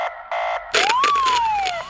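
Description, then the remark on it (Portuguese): A loud police car siren opens with two short electronic blasts, then breaks into a wailing tone that rises and slowly falls. No voices. “que tava dobrando a esquina mesmo na hora que deu de frente com a viatura.”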